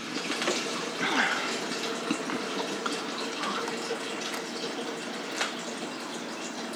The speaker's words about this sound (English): I gotta pour this shit in here. Mm-hmm. I pour it in it until it's like completely full.